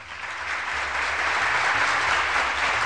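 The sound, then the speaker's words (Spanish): A crowd at a birthday party applauds steadily for the birthday guest, a dense wash of many hands clapping that swells slightly in the first half-second and then holds at a full, even level for about three seconds. “Aplausos, por favor.”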